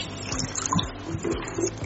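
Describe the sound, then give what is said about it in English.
Soda ash being stirred gently into one liter of water to dissolve it: a steady swishing and sloshing of liquid with a few soft knocks and splashes, no voices. “We are dissolving it, one over eight soda ash in one liter of water.”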